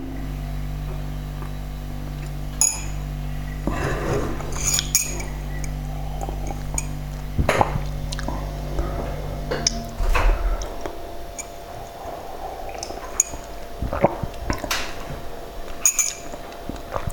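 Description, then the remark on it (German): A refrigerator drones in the background with a steady low hum that cuts off partway through, while scattered light clinks and ticks sound. No one speaks. “Ja, im Hintergrund hört ihr wieder den Kühlschrank summen.”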